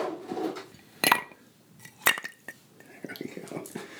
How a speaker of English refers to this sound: How about we put an ice cube in it and add a little vodka?